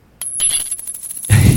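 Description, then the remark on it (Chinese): A five-yuan coin dropped on a hard floor strikes it with a bright metallic ring, then a rapid series of small clinks and rattles as it bounces and spins, ending in a louder, low-pitched clatter. “吼，这是丢在地板上的声音，这是五元。”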